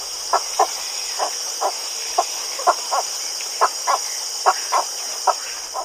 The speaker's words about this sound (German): Ja, das ist er auch schon, der Vogel der Woche, der versehentlich heilige Kuhreiher, also so eine Art parasitäres Heiligtum, was er da bekommen hat über die heilige Kuh in Sri Lanka, wo ich gerade war.